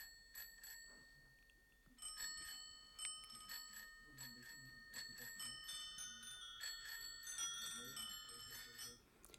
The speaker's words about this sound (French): Et on peut même entendre un solo uniquement composé de sonnettes de vélo.